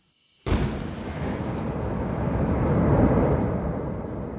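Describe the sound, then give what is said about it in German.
A sudden loud blast bursts out of silence, then a dense, roaring rumble of rushing gas sustains at steady loudness, swelling slightly before easing off, as gas pressurized to about 100 bar is suddenly released from an explosion chamber holding volcanic ash in a lab's artificial volcano. No voices. “Wenn der plötzlich abreißt, kommt es zu einem kleinen Vulkanausbruch.”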